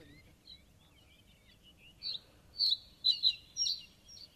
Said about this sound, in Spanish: Ya nos hemos adentrado por una de las orillas del humedal y está ahí el cantando el escribano. qué cosa, escuchémoslo porque merece la pena. Sí. Qué sonido más delicado. Muy bonito.